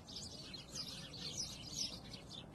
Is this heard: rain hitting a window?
no